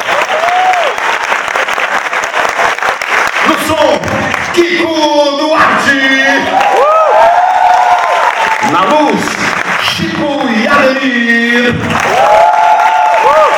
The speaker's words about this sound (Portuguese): Eu vou agradecer, vocês fizeram lotar esse teatro aqui, poxa vida! Obrigado! Salve de palmas para Rodrigo Rosa, meu produtor hoje, Amante Lover.